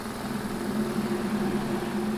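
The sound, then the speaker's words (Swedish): A small generator, just found and switched on, runs at a steady idle, a continuous low droning hum with a buzzy tonal band and faint vibration, holding even in loudness with no voices. “Jag hittade en generator! Okej, okay, bra. Okej. Okay. Um, ehm, det är väl bara att slå på den då.”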